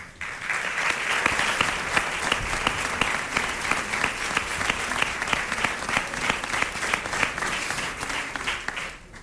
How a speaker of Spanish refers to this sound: está aquí con nosotros, yo pido un aplauso para él.